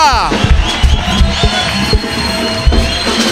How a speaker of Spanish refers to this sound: Dale un aplauso Señor fuerte, fuerte, aleluya.